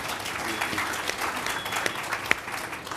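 A room full of people applauding steadily, a dense, continuous patter of many hands clapping at moderate volume, with a few sharper individual claps standing out near the end.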